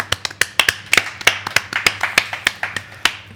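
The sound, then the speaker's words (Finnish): Applause from a few people: sharp, separate claps in an uneven patter lasting a few seconds over a faint low hum. No one speaks. “Annetaan aplodit”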